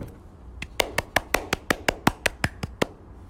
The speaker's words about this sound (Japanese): これ一人で拍手するのもなんか虚しいな。